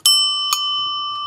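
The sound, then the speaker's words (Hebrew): A bicycle bell, brought onto the show, rings twice in quick succession, bright metallic dings with a long shimmering ring that lingers and slowly fades, fairly loud, with faint low rumbling underneath. “אתה הבאת לפה פעמון של אופניים רק כדי”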